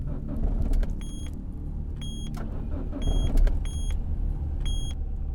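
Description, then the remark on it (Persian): A car engine with a weak battery labors to start with a low, grinding rumble, while short electronic dashboard chimes sound repeatedly over it at regular intervals; no one speaks. The car had sat parked by the street for several days. “به زور روشن شد چون چند روزی بود که افتاده بود کنار خیابون و باتریش ضعیف شده بود هر جوری بود روشنش کردم”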